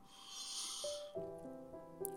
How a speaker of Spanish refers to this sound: Una última vez con todas tus fuerzas, inhalo.